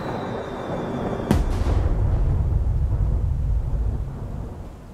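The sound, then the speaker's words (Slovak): After a brief quiet lead-in, a single sharp, loud explosive crack bursts out as a large sparking fireball from a fire crashes straight down to the ground and explodes behind a hill, giving way to a heavy, deep rumble that rolls on for several seconds before slowly easing off. “Bača Pieter už len videl, že keď na nebi dosiahla vrchol, zrazu sa zrútila rovno na zem a za veľkého výbuchu zmizla za kopcom.”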